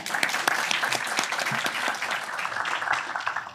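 A crowd applauds Karl Kristian Beking, state secretary in the Ministry of Health and Care Services, many hands clapping in a dense, even patter that stays fairly loud throughout, with a faint murmur of voices underneath.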